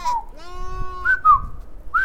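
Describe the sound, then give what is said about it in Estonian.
Sheep and goats bleat at a livestock market where men in colourful embroidered robes trade among the animals. A long wavering call is followed by several shorter overlapping bleats, with a low murmur of background noise underneath. “kirevad värvid, tikandid, burnussid ja džellabad, nii liiguvad nad loomade seas, kauplevad ning nende vestlusi saadab nende määgimine, kellest parajasti jutt käib”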